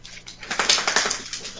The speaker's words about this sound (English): that was the dog. She shook her head.